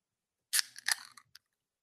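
A close, crisp metallic crack followed by a short burst of fizzing hiss and a final small click: a beer can being popped open, with no one talking.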